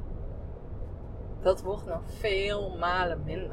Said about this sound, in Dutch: Je hoort dat ik zit nu in de auto